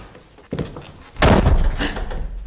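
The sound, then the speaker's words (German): A door in a low passage swings and falls shut with a heavy, booming thud, preceded by a softer knock-like bump, and will not open again. A low rumble lingers after the impact. No one speaks. “die Tür. Oh. Sie ist zugefallen.”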